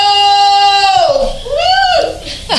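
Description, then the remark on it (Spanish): A person lets out a loud, high-pitched scream that slides downward, then a second shorter cry rising and falling, about two and a half seconds of strained vocal wailing. “Solamente me gritó una qué, porquería.”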